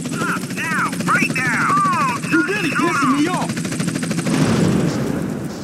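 In a video game, an army helicopter chasing the player thumps its rotor steadily and loudly throughout, with bursts of gunfire and other chaotic action sounds layered over the top before the noise thins near the end.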